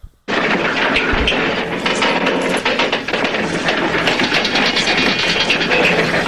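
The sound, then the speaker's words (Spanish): A loud, rapid clattering TV-series sound effect of someone running, a dense, steady stream of fast beats that starts abruptly and continues for about six seconds with no voices. “I don't know what este corriendo, este corriendo, estará corriendo.”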